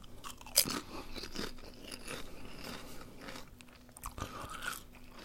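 Crisp crunching as someone chews something crunchy, with sharp bites breaking through and a steady run of crackly chewing sounds, no talking over it.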